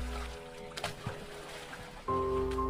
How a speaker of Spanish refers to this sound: Debido a que queríamos ir rápido, remábamos muy fuerte, pero al romper la tensión del agua con nuestras manos, provocábamos mucho ruido.